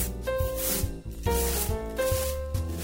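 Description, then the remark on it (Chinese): Rhythmic scrubbing and polishing of a shop floor by the big bad wolf: repeated rough, rasping rubbing strokes in a steady back-and-forth pattern, fairly loud, with a tuneful melody playing underneath. “于是，大野狼不停地打扫，还将地板洗净磨亮，做得气喘如牛，又汗流浃背。”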